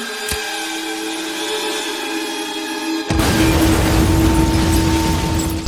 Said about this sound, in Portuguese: O carro explode.